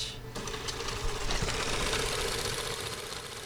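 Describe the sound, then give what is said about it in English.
Microfilm being hand-wound through a reel after being fed under a glass plate into another reel: a steady mechanical whirring with rapid, even ticking that runs for a few seconds at a moderate level, with no one speaking. “With those details in hand, we go in search of microfilm, have to snake the film underneath a glass plate and feed it into another reel and then hand wind it for a second.”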